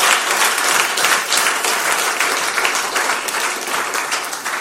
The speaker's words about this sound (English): Ah, you, you, can clap, you can clap better than that.